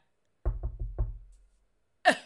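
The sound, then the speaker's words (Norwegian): Four firm knocks on a door in quick succession, loud with a hollow low thud, then a pause and a brief sharp burst of sound. “Og jeg orker faktisk ikke å bli banka på av en politimann akkurat nå.”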